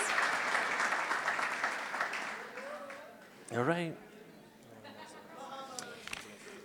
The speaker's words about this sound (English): All right, big round of applause for these two couples. Thank you, guys. Un aplauso. estas parejas.